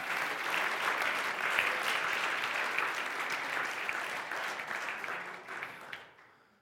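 An audience breaks into sustained applause as a hand clap of praise to the Lord, a dense, steady wash of many hands clapping that holds evenly for several seconds before tapering off at the end.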